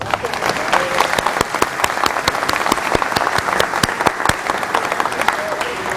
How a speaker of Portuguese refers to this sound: Aliás, vou dar salva de palmas para você.